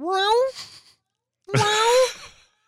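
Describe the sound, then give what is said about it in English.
Two drawn-out, rising wails with a short pause between them, like a cat crying behind a closed bedroom door, probably a human voice imitating it. Fairly loud, with nothing else around them. “I'm going to have to lock you behind my bedroom door. I can't just let you wander around. And I'm I'm fully expecting during this podcast to hear”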